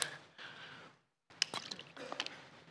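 A person drinks water: a soft pour-like rush, a short pause, then wet gulps and swallowing clicks in quick succession, fairly quiet with no talking.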